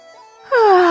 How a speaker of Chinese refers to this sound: 贾母忙命将食物搬去，赏给众位仆人，随后打着哈欠